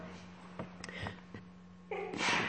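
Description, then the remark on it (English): Someone sneezes once, a quick breathy build-up bursting into a sharp, noisy sneeze near the end, heard at moderate loudness over a steady low electrical hum and faint room noise. “God bless you.”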